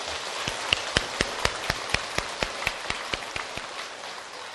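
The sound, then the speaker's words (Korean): An audience at a Buddha's Birthday gathering in Incheon applauds to welcome the city's mayor, with sharp claps landing in a steady, even rhythm over a continuous wash of scattered clapping. It stays at a constant level throughout, and no one speaks. “박수로서 환영해 주십시오.”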